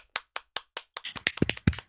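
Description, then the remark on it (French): Applause for the new editor-in-chief of Alpha 42, starting with a few separate, evenly spaced claps that quickly build into denser, overlapping clapping from several hands, growing louder toward the end. “Oui, et maintenant la représentante d'Alpha 42 à l'externe, la nouvelle éditrice en chef, alors on la l'applaudit.”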